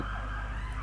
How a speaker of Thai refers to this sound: ขออภัยรถหวอผ่านครับ